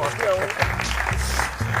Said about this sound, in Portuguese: Batam palmas, batam palmas. Vocês também.